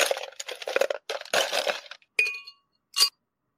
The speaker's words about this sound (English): There's your ice up. Uh, your, there's your ice cubes.